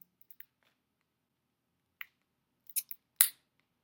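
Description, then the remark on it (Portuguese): Quiet handling of a small tarot card deck box, made in Turin, Italy, being opened with a ruler: a few faint ticks, then a cluster of crisp snipping clicks ending in one sharp snap, with no talking. “Vamos abrir? esse baralho aqui para ver as cartas juntos.”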